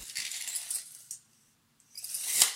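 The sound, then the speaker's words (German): A metal measuring tape rattles as it is pulled out to measure a 1.5 metre minimum distance, goes quiet briefly, then whirs back in with a sharp closing snap. Fairly quiet, no voices. “Das war das Geräusch 1,5 Meter Mindestabstand abmessen.”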